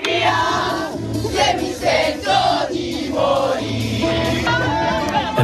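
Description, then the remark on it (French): A large crowd of football supporters chants together in loud, rhythmic, sustained unison, voices rising and falling in repeated phrases over a dense roar, with no single speaker standing out. “Alors demain après-midi, dans la marée de supporters hollandais qui devraient déferler sur Valenciennes, eh bien, on espère aussi entendre ça.”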